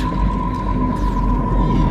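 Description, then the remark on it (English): Sci-fi space gun effects in a song: a steady whining electronic tone rides over a dense, rumbling low end, with a swooping high zap sliding downward partway through. “Oh, they're going to let off some space guns in a minute.”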